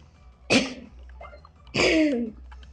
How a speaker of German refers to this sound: Ah, ich hab den Husten öfter.